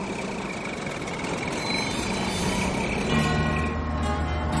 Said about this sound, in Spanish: Julius camina mientras el autobús comienza a andar. Ahora el autobús se para de nuevo y Julius se gira a mirar.